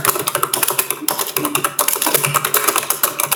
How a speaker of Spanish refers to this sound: Sí, es teclado oficina.